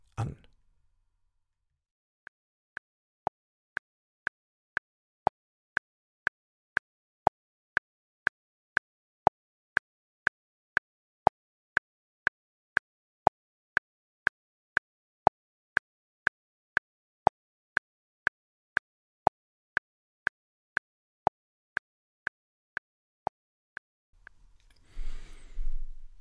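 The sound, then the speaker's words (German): A steady metronome click track in four-four time, repeating a four-beat pattern, one lower click followed by three higher clicks, at about two clicks per second, sharp and dry, with no other sounds. “Ihr habt gehört einen tiefen Klack und dann drei hohe Klacks.”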